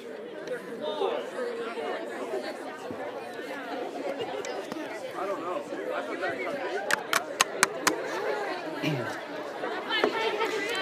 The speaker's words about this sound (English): Okay, turn to somebody next to you. Tell them what you think this is.